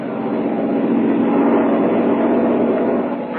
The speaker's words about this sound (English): But what of the coal? Perhaps tomorrow the Americans will have it for us. Perhaps it is on that very plane we are hearing now.